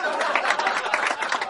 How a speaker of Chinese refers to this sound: 大嘴巴王鹏上台鞠躬，掌声鼓励。